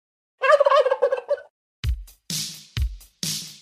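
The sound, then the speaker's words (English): A turkey lets out a loud, rapid warbling gobble, followed by four short, thumping bursts of noise in quick succession. No one speaks. “we're closing in a couple weeks before we cut into the bird, man. So, uh, gobble, gobble.”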